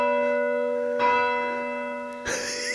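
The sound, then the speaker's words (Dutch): A large church bell, rung by pulling its rope down and then stopping, rings out, its strikes layering into a sustained, shimmering hum of overtones, with a fresh clang near the start and another strike toward the end, heard alone without talk. “Nee, je moet hem dan naar beneden trekken. Ja. En dan moet je op een gegeven moment stoppen. Dan gaat die klingelen.”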